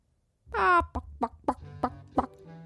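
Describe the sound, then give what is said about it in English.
A hen, the Little Red Hen of the story The Little Red Hen, gives one drawn-out, squawking cluck followed by five short, evenly spaced clucks, each a quick nasal burst, moderately loud with a low background hum. “The Little Red Hen”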